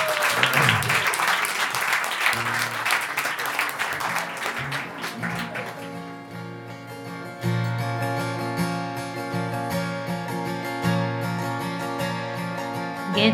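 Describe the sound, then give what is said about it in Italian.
A crowd at Il Salotto claps and cheers for a band in a dense burst of applause that fades over several seconds, then a band starts playing with a steady bass line and sustained tones. “Facciamogli un grande applauso grazie.”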